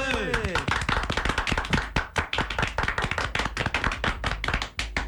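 applause

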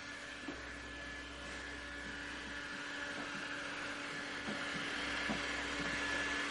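vacuum cleaner running

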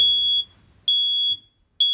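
fire alarm going off

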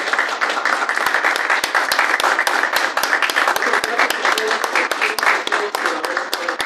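applause

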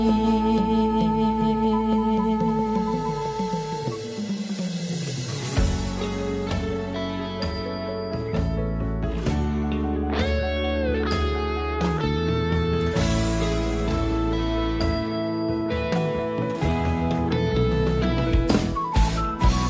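song played

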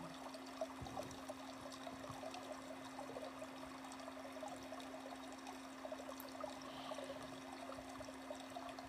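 trickling water

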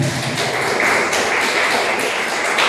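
applause

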